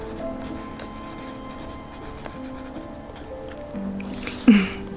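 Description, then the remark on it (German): Steady, soft scratching of a colored pencil being drawn across the paper of a math exercise book, continuous, with a brief louder scrape near the end. No one talks. “Aus meinem Rucksack habe ich mein Matheheft und meine Schachtel mit Farbstift geholt.”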